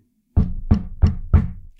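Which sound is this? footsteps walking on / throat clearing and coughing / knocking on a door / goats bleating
knocking on a door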